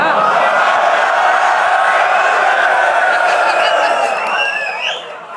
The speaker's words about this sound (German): Selbst nach zehn Jahren Battle Rap gibt es den großen Applaus für sowas.